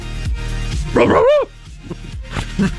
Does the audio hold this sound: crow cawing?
no